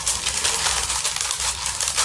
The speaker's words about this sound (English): You hear uh-huh. some rustling, okay, uh-huh. and we take a look at the plant and like, wait a minute, the plant is rustling. Where is Tess, the cat, right? We think uh-huh. the cat is playing with the plant right?